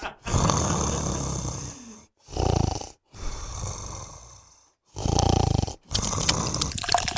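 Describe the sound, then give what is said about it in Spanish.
Loud snoring from a person who has fallen asleep: a run of long, rasping breaths alternating in and out, about five in a steady rhythm with brief pauses between, and no talking. “Se durmió.”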